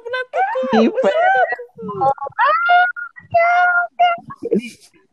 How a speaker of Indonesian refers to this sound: Suara bapak teriak-teriak di belakang udah kenceng banget ini Pak.